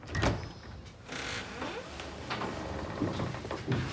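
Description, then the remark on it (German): A bedroom door swings open with a low scraping creak and a few soft knocks of the latch and frame, moderately loud, with no voices. “Er geht zum Schlafzimmer. Im Gegensatz zum Vorabend ist die Tür nun geschlossen.”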